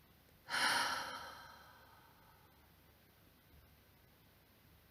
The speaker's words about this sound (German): Schließ einen Moment deine Augen und nimm drei tiefe Atemzüge durch die Nase ein, durch den Mund aus. Ein zweites Mal. Und ein letztes Mal tief einatmen.